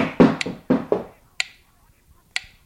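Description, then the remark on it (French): A few hollow knocks land in quick succession, followed by sharper, sparser raps spaced out over the next couple of seconds, with quiet gaps between them. “Moi aussi, je peux frapper”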